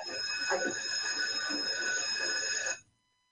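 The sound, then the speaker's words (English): A loud bank alarm bell, set off when a man hits the alarm, rings continuously with a harsh metallic clang for nearly three seconds, then cuts off abruptly into silence. “mistake, he hits the alarm.”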